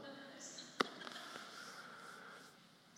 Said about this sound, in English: Yes, you hear a bird in the room. I won't say you that. I might as well call it out. It's going to tweet the whole time.